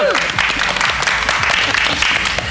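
An audience applauds the Dream Team hosts of Radio Moquette in the central aisle of the store in Valence, with dense overlapping hand claps forming a loud, continuous crackling wash that holds at an even level throughout.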